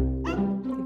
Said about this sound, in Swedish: Det är en hund där ute!